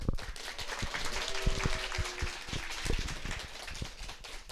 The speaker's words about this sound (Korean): 네, 마치 짜여진 듯한 이 박수 소리 감사하고요.